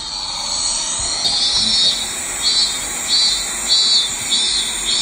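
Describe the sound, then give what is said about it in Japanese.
A minmin cicada sings loudly and steadily, its shrill buzzing drone swelling into regular pulses about every half-second, with no voices present. “セミの鳴き声は本当にミンミンミンなんだろうかという前回のセミの鳴き声についてですが60年もミンミンミンと聞いている私は目を閉じ無にして聞いてもそれ以外には聞こえずおおちょっとかけてみる今。”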